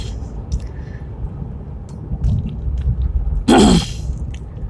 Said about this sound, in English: Oops, I forgot I got on the interstate because I was busy ranting. So this might get loud. I apologize.